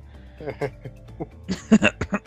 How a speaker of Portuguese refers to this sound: Agora nós temos a tossida.